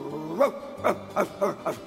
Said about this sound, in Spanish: Pero a diferencia del primero, entró con miedo y les ladró con furia.